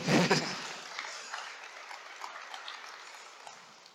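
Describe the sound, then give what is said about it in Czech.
Audience applause during a discussion about Bitcoin and exchanges: a dense patter of many hands clapping, strongest in the opening moment, then settling into a steady, softer crackle that gradually fades. No one speaks. “Klidně zatleskejte.”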